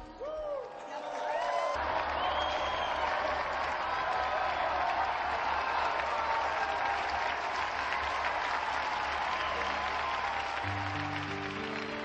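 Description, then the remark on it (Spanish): A large crowd breaks into loud, sustained applause for Saint Joseph of Arimathea and Saint Nicodemus after a brief quieter opening, the dense clapping continuing steadily to the end with a few faint cheers mixed in. “brindemos nuestro vivo aplauso a San José de Arimatea y a San Nicodemo.”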